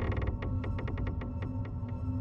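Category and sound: sound effect, door slowly creaking open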